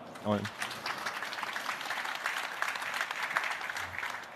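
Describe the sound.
An audience applauds with dense, steady clapping that fills the whole stretch at an even loudness, and a brief voice is heard near the start.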